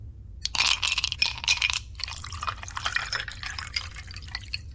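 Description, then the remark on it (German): A drink is poured into a glass, with a few bright clinks of glass at the start, then a steady liquid trickle and splash. No one speaks. “Ich glaube, ich brauche einen Drink.”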